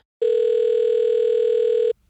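A single steady telephone ringing tone, heard while placing a call to a company doctor, sounds loud for just under two seconds before cutting off. No one speaks.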